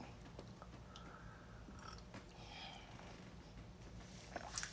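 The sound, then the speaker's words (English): Quiet mouth sounds of someone sipping a drink, with soft slurps and small wet clicks scattered over a few seconds and no talking. “Another sip.”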